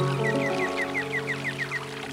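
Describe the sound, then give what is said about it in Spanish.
Steady running water from a meadow stream, with a songbird's short chirps repeating at an even, quick rhythm over the constant flow. No one speaks. “Dejemos que suene el prado, el arroyo y las aves cantoras.”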